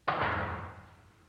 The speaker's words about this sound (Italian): L'Ural borbottò ancora per qualche metro e quando furono dentro tutti e tre, un fischio anticipò la caduta di un pesante cancello. L'eco del ferro sul cemento coprì il rumore di ingranaggi e la grossa porta si chiuse.